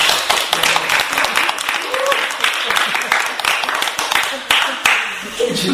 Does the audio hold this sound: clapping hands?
yes